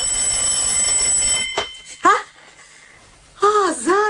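An electronic telephone ring: a steady high tone, then warbling, wavering trills in short bursts, clear with nobody speaking over it.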